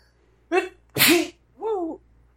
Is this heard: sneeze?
yes